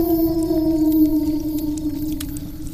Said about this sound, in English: The dogman threw its head back and howled into the night sky.